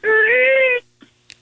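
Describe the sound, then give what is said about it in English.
A voice imitates the squeak of a barbed wire fence, tripped on while calling turkeys out west, with one loud, drawn-out nasal squeal lasting under a second, followed by quiet breathy rustles and a faint click. “um, I I kind of tripped on a barbed wire fence while we were calling calling some turkeys uh, or trying to get some turkeys going, and I tripped on a barbed wire fence, and it went.”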